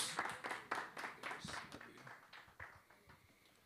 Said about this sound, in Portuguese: Você crê nisso, dê uma linda salva de palmas ao Senhor Jesus, glória a Deus.